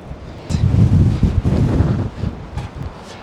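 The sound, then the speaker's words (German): Wind buffets the microphone outdoors in Zürich during extreme weather, in loud, rumbling gusts that swell and fade over a few seconds, with a low roaring texture and no voices. “Man hört den Wind also schon.”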